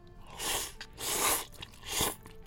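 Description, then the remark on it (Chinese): Three crunchy bites of a dish with a numbing, spicy red chili-oil sauce come in roughly even succession, each a broad, crackling burst of chewing that swells and fades, with quiet pauses between and no talking. “开开开麦吃吃看，我就先吃了哈，不好意思，先什么都吃一口来了。”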